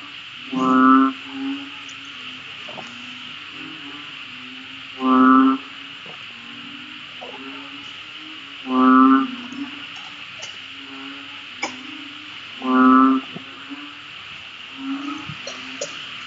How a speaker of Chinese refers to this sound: 我们一路走就能听到好多好多青蛙的叫声，越来越响。它们现在是大合唱，听。